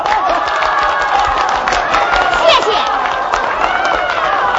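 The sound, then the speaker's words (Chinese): An audience at a meeting applauds steadily and loudly for several seconds to approve a candidate after a campaign speech, the clapping mixed with cheering and overlapping voices, while one person briefly speaks over the noise. “如果能同意我干的话，咱就鼓掌通过啊！”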